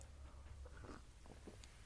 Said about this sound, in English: Sorry, I'm just having a sip of my coffee there.